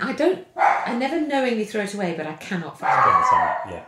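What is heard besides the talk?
dog barking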